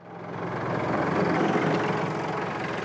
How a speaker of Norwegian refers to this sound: Traktoren gjør det siste for gjestene.